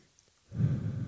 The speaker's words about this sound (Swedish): Oj, nu blåser jag i mikrofonen.